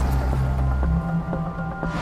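A boat going back to the city, loaded with Battersea artichokes, melons and sparrowgrass: its engine drones steadily while water sloshes and splashes around the hull in a few soft bursts, fairly loud, with no one speaking.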